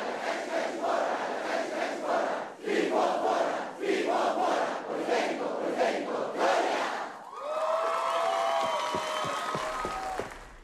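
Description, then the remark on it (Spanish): A large crowd shouts the Politécnico's 'Huelum' chant on Politécnico Day in rhythmic, repeated bursts for several seconds, then breaks into whistles and scattered cheering as the chant ends. “¿Qué te parece si hoy en el Día del Politécnico gritamos un ¡WELUM!”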